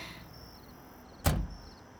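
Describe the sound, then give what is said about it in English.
A car door shuts once with a solid thud as someone gets into the car, preceded by a faint quiet hum and a few soft shuffling sounds of someone settling in. No voices are heard. “I get in the car and take a few deep breaths before I realize they're still back there, waiting for me to pull out, that they're not leaving until I do.”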